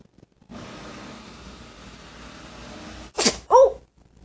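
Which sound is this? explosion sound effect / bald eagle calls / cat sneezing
cat sneezing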